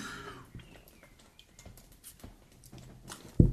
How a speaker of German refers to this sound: Trinkgeräusche. Oh, aber das war nur ein leichtes Blubbern. Aus dem eiskalten Fläschchen.